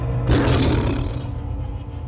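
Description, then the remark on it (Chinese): A Sumatran tiger lets out one deep, loud roar that bursts in harshly, then rumbles low and gradually fades over about two seconds. No one speaks. “那么和大家在这个世界地理杂志里面所看到的非洲老虎不一样啊，非洲老虎呢会去追逐这个猎物啊，可是苏门答腊虎呢？主要是靠潜伏啊，偷偷的靠近猎物，然后扑上去攻击它们啊，才可以得到食物的。”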